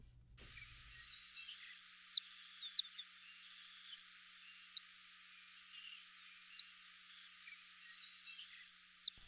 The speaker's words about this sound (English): color, the saffron finch. But their songs are just as lovely as their plumage.